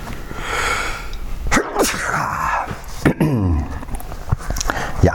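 A person sneezes, a sharp explosive burst with a short intake of breath before it, followed by a second sneeze and some shaky vocal sounds amid low background noise.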